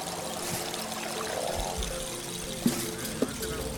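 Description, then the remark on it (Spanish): The Magdalena River's water flows in a steady, continuous rush, moderately loud, with a faint low hum underneath and a few brief knocks near the end. “a qué suena el río Magdalena de día o de noche”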